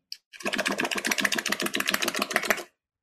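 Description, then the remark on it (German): A person demonstrates a whale imitation for a group to copy, blowing air through puffed cheeks, making a loud, rapid fluttering buzz that pulses steadily for a couple of seconds, like a sputtering motor, with no talking. “Wir wollen mal versuchen, wie das ist, nämlich Walfisch mit den Backentaschen.”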